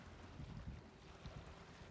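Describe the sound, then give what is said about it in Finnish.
A steady wash of sea surf rushes in the background on a sunny, warm shore beside a harbour, bringing white foam onto the beach, mixed with wind buffeting the microphone and a few soft low thumps, fairly quiet and continuous with no voices. “Ja meri kohisee tuossa taustalla.”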